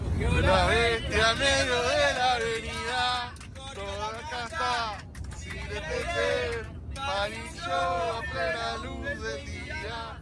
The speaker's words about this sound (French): On y voit le président argentin dans un vol commercial euh, qu'il ramène en Argentine, applaudi par les passagers qui chantent pour lui.